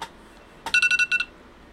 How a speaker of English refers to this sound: That was my alarm to wake up, but I'm already up.